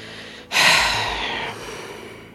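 A single deep, audible breath drawn in sharply, then slowly let out over about a second and a half, fairly loud with no talking.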